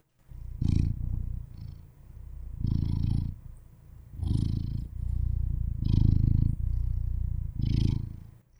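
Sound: cat purring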